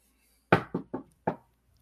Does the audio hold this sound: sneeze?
no